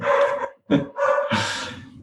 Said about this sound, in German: Sehr gut, na, jetzt sprechen wir gerade über die rote Energie, schon bellt der Hund.